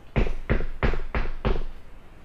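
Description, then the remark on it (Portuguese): A nervous hunter knocks hard on the wooden door of a woman's house: five heavy knocks, evenly spaced, each a loud dull thud with a short ring afterward, with no voices. “Na porta, pensou em desistir, assim, umas 50 vezes, mas acabou batendo com força.”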